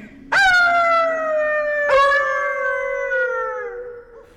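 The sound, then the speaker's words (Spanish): Long, mournful howls from a chorus of wolves at night, carried on a gentle wind through a mountain gorge, one rising in and a second joining a moment later, both holding steady and slowly sliding lower before fading out together. Loud, no talking. “Hasta que arrastrados por el viento que ahora soplaba suavemente por el desfiladero, se oyó un coro de aullidos que parecían provenir de toda la región.”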